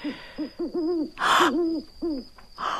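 owl hooting

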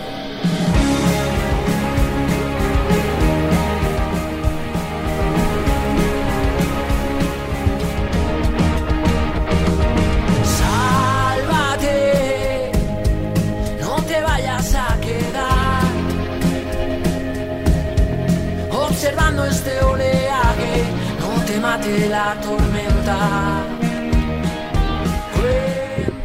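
band's song played

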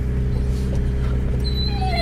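dog whimpering

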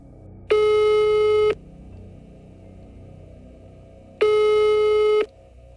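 telephone ringing tone

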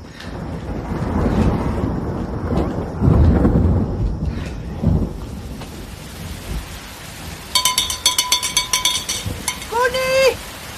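thunderstorm with rain

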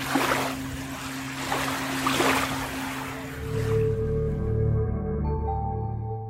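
beach ambience with waves

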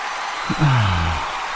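applause

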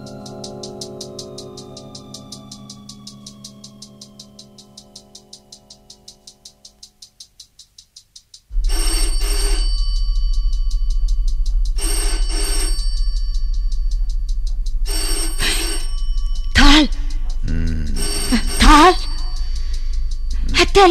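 telephone bell ringing

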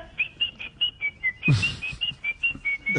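whistling sound effect

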